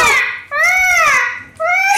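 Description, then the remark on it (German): A voice imitating a newborn baby's cry, three loud, wavering wails in quick succession, each rising and falling in pitch with a thin, strained tone. “warte, warte, ich mach mehr Baby. Das war irgendwie wie so ein Vogel, oder?”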